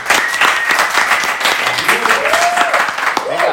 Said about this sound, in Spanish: Felicitaciones, papi. De verdad, un aplauso para gente, de verdad.